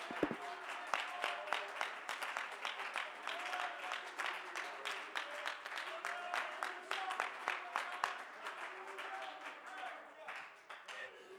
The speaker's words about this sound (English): Would you clap your hands and praise the Lord of our help tonight?